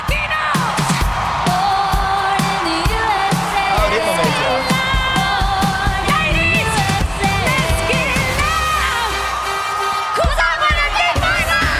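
A loud live stadium halftime show performance with pounding drums and a singing voice over a roaring, cheering crowd, the dense sound continuing without a break for the whole stretch.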